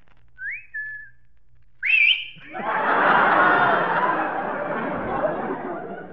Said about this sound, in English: this is the first time I ever picked up a factory whistle.